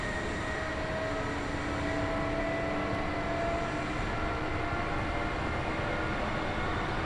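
A Kintetsu Nagoya Line local all-stations train in Japan, running from Shiohama toward Shiroko, rolls along with a steady, dense mechanical rumble and rattle, faint tonal whines running through it, continuous and even throughout with no voices.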